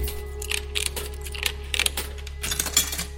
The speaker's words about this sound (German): Das heißt, der Klang von Münzen in der Hosentasche oder das Reinstecken von Kleingeld in Automaten, das wird definitiv demnächst ein Lost Sound sein.